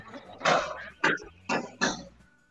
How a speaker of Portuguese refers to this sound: Esses, esses, barulhos que vocês ouviram agora aí foi tiros. tiros aqui na é? minha rua. Infelizmente, né?